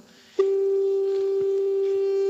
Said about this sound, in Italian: ecco, è una specie di tono, un fischio, ve la, ve la ritorno. Ecco, acustico, ma è simile a quella che è una portante radio, una sola frequenza.